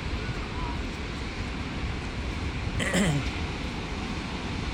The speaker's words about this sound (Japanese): あの波の音でねちょっとライブライブじゃなくて収録しようかなと思って来たんですけどもちょっとなんか風が強かったりするんで風の音がねなんかうるさくてあまりよく録音できなくてですね今ちょっと歩きながらいいどいいところを探してます